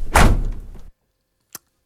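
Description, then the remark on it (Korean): The driver's side front door of a car opens with a heavy thunk and a short, fading rumble, followed a moment later by a single sharp latch click. “그러다가 아, 이거 진짜 이대로는 안 되겠다 싶어가지고 몸을 돌려서 빼려고 엉덩이를 운전석 쪽으로 이렇게 살살살 돌렸는데 갑자기 운전석 앞문이”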